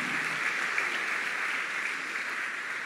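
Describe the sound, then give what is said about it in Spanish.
Steady applause from a crowd, given to God, a dense, even wash of many hands clapping at a constant loudness for the whole stretch, with no voices rising above it. “Puedes darle ese aplauso fuerte a nuestro Dios.”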